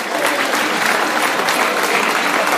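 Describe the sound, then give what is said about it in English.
A large football stadium crowd claps the players off the pitch, a dense, continuous wash of applause from many hands that holds at an even level throughout, with no speech on top. “Fans all clapping the players off today.”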